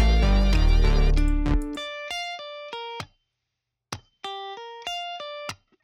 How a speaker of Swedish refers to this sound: Ehm, sen så vill jag pimpa upp det lite, så jag valde att lägga till en elgitarr. Som ni kan höra här. Mycket, mycket basic.